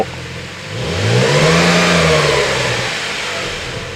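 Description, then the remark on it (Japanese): A Porsche sports car engine revs up loudly while being driven in a city, its pitch climbing then settling back down in a single throaty surge, with no voices over it. “実際にポルシェに乗ってエンジン音を体験！！”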